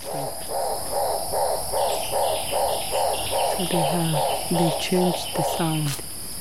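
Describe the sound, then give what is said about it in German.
A large, bright blue turaco in dense foliage overhead calls in a long run of rhythmic, throaty croaks that build steadily, with deeper, gruffer notes joining toward the end over a steady hiss of insects. “All diese Geräusche kommen vom Turaco?”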